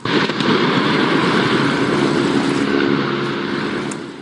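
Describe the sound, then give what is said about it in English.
A life-size model steam locomotive, built for a Mission: Impossible film stunt with Tom Cruise, crashes off the end of the line over a disused quarry in the Peak District, Britain, filmed by helicopters. A loud, unbroken roar of rumbling and crackling noise lasts about four seconds and eases slightly at the end, with no voices. “This was the moment a steam locomotive hurtled towards the end of the line over a disused quarry in the Peak District.”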